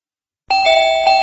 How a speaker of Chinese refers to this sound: 呃，门铃响了，一定是洋洋、竹竹他们来了。